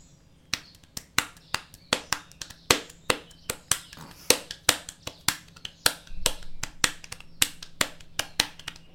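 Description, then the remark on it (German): A fast, steady rhythm of sharp hand slaps on a belly, roughly two dozen crisp hits with an uneven drumming pattern as a person plays a short piece, fairly loud, with no talking. “Also jetzt klatsche ich in die Hände, nicht ja. auf den Bauch.”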